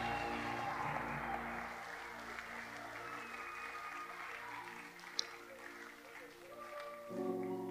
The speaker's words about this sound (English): Give the Lord a victorious hand clap. I said, clap like you've seen victory. Clap like you've heard the answer to your prayer.